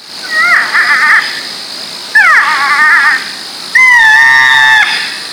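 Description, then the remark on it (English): A porcupine screams three times in close succession, each cry a shrill, wavering, whining wail, loud, with brief pauses between and no talking. “The sounds they make will just send chills down your spine.”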